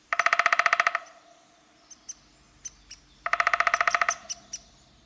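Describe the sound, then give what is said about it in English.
Two rapid, descending whinnies from a downy woodpecker, each a quick run of sharp notes, with a few separate short 'pik' calls scattered between them. Clear, with no talking. “Where the downy has soft, fluffy feathers, especially at the back of its head, the hairy's feathers look stiff and bristly.”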